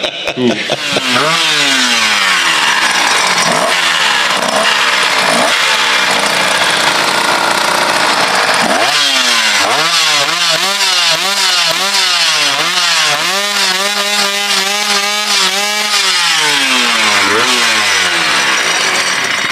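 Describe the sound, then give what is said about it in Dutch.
A Honda NSR 250R two-stroke motorcycle engine revs loudly, its buzzy pitch jumping up and down in quick blips, then climbing to a sustained high wail before dropping back to idle. “Ah, de Honda NSR 250R.”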